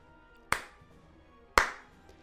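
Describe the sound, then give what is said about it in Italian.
Two sharp hand claps about a second apart, evenly spaced, counting the beats of a piece written in four-four time, each with a short ringing decay, with no voices. “Questo vuol dire che ci sono quattro battiti di mano all'interno di ogni battuta.”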